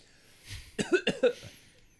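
A short burst of loud coughing: three or four quick, harsh coughs in a row, with a brief breathy lead-in and nothing else around them.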